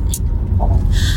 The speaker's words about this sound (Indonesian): Mohon maaf kalau suaranya mungkin agak terganggu sama noise dari jalan atau mesin mobil.